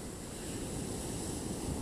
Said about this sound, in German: Die Wellen sind mächtig und stark